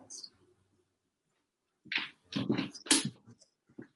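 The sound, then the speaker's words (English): Dogs whimpering close by, a cluster of short, tight whines and yelps bunched together after a near-silent stretch, fairly loud against an otherwise quiet background. “Why do all the dogs have to be right here, right now?”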